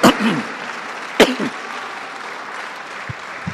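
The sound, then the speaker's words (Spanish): An audience applauds a young man, a steady, dense wash of clapping that holds at an even level throughout, with two sharper, louder bursts near the start and a few low thumps toward the end. “Y ese joven que está aquí, ahora vamos a darle un aplauso,”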